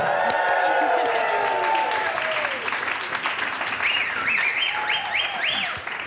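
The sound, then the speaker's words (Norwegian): A live audience of about 100 people at an event called Naturfagets helter bursts into loud, sustained applause welcoming the hosts, with cheers and whoops, dense clapping throughout, while a few high rising and falling whistles ring out over the crowd. “For en nydelig mottakelse.”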